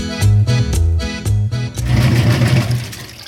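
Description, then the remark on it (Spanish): A washing machine runs, loud and mechanical, with a steady rhythmic thumping and low hum that gives way to a denser churning whir. No voices. “Qué bien, ya salió la ropa de la lavadora.”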